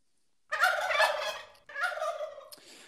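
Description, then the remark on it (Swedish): A turkey gobbles loudly in two rattling bursts, the first about a second long and the second shorter, close and clear with no talking over it. “Så vi skickar en fet kalkon till Al-Hakim.”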